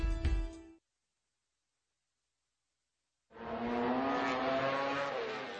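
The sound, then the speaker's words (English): Road racing motorcycle engines roar loud: a brief revving burst cuts off into silence, then a second engine screams in and holds a sustained, high-pitched whine to the end. “This is the world of motorcycle road racing, the pinnacle of motorsport.”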